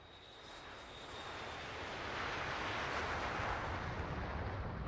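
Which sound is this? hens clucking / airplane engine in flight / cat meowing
airplane engine in flight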